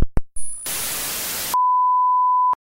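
A short click, then a loud burst of hissing static cuts off into a steady, pure electronic tone held for about a second: the 'chord' sound effect played from a phone speaker, with no one talking.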